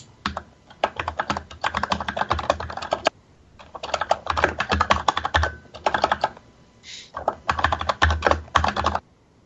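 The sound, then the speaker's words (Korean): Rapid typing on a computer keyboard in three dense bursts separated by brief pauses, with clustered key clicks and no one talking, as someone searches online for the title of an old Gundam game. “아 뭐였을까 검색하면 나올라나?”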